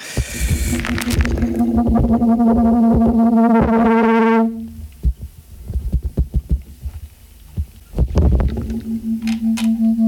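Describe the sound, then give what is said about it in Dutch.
A loud, steady electrical hum with buzzy overtones sits over a bed of tape hiss on a demo recording made at home, cutting out midway amid scattered low thumps, then droning back in near the end. “Dus het zingt rond en het ruist.”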